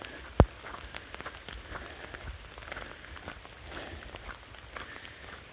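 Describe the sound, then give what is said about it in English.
Steady patter of rain or sleet hitting a surface nearby, a dense crackling hiss with scattered sharper ticks and one brief louder tap near the start, with no voices. “Wasn't supposed to rain right now.”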